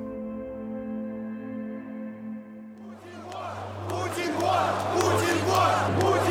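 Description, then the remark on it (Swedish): A steady, low musical drone gives way halfway through to over 100,000 protesters marching in Moscow on a sunny Saturday afternoon in February 2012, chanting "Putin, go away!" together, a loud, dense roar of many voices that swells and keeps going to the end. “De skanderar “Putin, försvinn!””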